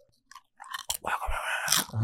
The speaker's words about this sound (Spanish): yo siento que la gente está escuchando que tú estás mascando rufles o, lo que estás comiendo ahí. Un super crujido.